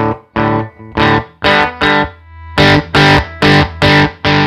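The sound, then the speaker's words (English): An electric guitar played through an overdrive pedal on its B setting, with no clipping and a big volume boost, with loud, crisp strummed chords in a steady rhythm and a brief sustained ring in the middle. “The B setting is no clipping at all.”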